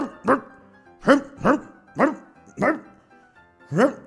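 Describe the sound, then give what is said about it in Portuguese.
A person imitates a Pomeranian's barking, giving six sharp, yappy barks in an uneven rhythm, fairly loud, with no other talking. “Eu lati também. Nossa, olha esse Lulu da Pomerânia.”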